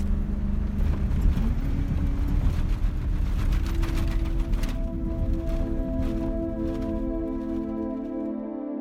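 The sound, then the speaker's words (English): A 4x4 truck's engine roars and strains, revving higher and holding a steady drone as it churns slowly over loose sand dunes where there is no road, making several attempts, with rumbling and crunching underneath. “so we're driving over sand dunes. Carlos insists that he show us that view”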